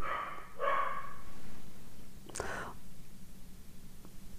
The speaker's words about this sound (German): Zum Beispiel der Hund im Hintergrund ist jetzt etwas, was ich eigentlich gerne anders haben möchte, aber nicht ändern kann. Jetzt kann ich mich entweder darüber aufregen, dass der Hund bellt, während ich den Podcast für euch aufnehmen möchte gerade,